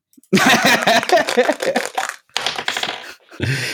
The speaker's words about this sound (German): Ja, ich, ich würfel nochmal, ja?